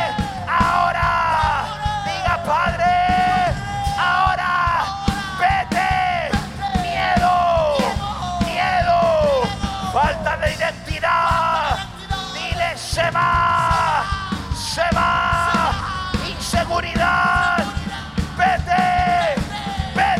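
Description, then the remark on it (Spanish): A large audience shouts and cries out together to the Father at full volume, many voices overlapping in a dense, continuous roar of yelling that rises and falls in waves for the whole stretch. “Dile Padre, grite padre.”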